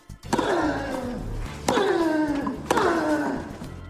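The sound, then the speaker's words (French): A male tennis player, Rafael Nadal, lets out three loud, drawn-out grunts during a match, each starting with the sharp crack of the racket striking the ball, spaced about a second apart, with no talking. “C'est démontré, crier lors d'un service ou d'un coup au tennis augmente la vitesse de la balle de 4 à 6%.”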